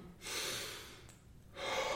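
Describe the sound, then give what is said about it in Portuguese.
Heavy, labored breathing of a man after several minutes of running: two long, airy breaths separated by a short pause, loud and rough with no talking. “Vocês veem que a respiração dele tá pesada.”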